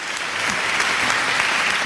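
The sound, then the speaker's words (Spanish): Steady applause from a crowd, dense and continuous clapping at an even loudness throughout, with a faint voice briefly audible near the end. “me cortas los aplausos, me cortas, me cortas todo.”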